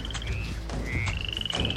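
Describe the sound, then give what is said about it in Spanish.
Toads croaking in a steady chorus outside, with high, rapidly pulsed trills repeating over a low rumbling background, moderately loud and continuous throughout, with no one talking. “John y Elise se abrazaron con fuerza mientras escuchaban la constante lluvia de sapos procedente del exterior.”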